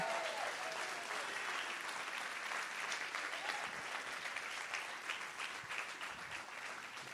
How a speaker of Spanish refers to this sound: Y si usted lo cree, denle un aplauso fuerte a Él.